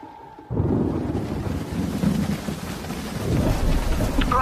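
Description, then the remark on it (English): Heavy rain pours down steadily while deep rumbles of thunder roll through, starting abruptly after a brief quiet moment and staying loud throughout with no voices. “There's a typhoon warning.”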